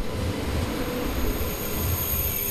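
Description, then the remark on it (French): A train approaches the platform with a steady low rumble and a continuous high-pitched squeal of wheels on rails, fairly loud and unbroken throughout, with no voices. “Le train approche, il est temps pour moi de vous laisser.”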